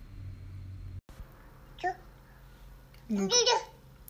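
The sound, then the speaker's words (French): A baby babbles during an interview in two short bursts, a brief coo followed by a longer, wavering string of high-pitched vocal sounds, against a low, steady background hum. “Donc vous allez entendre les petits gazouillis parfois qui, sont là pendant l'interview.”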